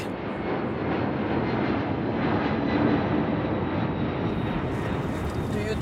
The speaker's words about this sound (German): Am 29. November 2021 steigen wir ins Flugzeug.